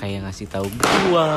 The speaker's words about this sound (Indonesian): ngasih tahu gua tuh kayak ada suara bangku jatuh gitu nah tadi kalau kalian dengar itu itu suara jatuh gitu